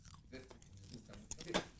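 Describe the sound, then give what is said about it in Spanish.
Crunchy chewing of popcorn, a series of irregular soft crackles that grow sharper and louder toward the end, with no talking. “¿Tienes palomita? Pero come mismo para que se quite.”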